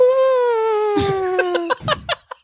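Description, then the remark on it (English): A voice hums a long, steady whistle-like tone that slides slowly downward, imitating a slide whistle, then breaks into a few short bursts of laughter. “a funny noise, like a slide whistle.”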